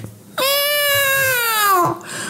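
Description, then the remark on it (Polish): A single long, drawn-out meow, loud, holding a steady whining tone for about a second and a half before trailing off, with no talking around it. “kiedy po 20 minutach marszu zaczął kurwa miauczyć”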